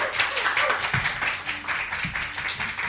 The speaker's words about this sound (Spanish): Oye, eh, qué, emocionante que haya público. ¿Puede, haber otro aplauso? Bien.